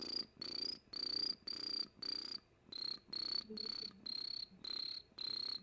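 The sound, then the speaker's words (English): An imitation of a chirping cricket: about eleven shrill, high-pitched bursts in a steady, regular rhythm. It is clear, with no talking. “Let's see if I can do the cricket.”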